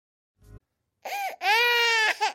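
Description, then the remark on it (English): A baby wails loudly in two strained, sustained cries, the second longer and higher, after a brief muffled rustle at the start. “Sound familiar? If your baby is going through another bout of bad diaper rash”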